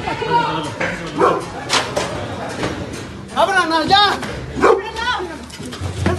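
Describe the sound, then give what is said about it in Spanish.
A dog barks in short, sharp bursts in Puebla amid excited shouting from several people urging it to bite, the barks and voices overlapping in a tense, noisy scene. “Pero el perro me llama la atención, te pongo las imágenes en Puebla.”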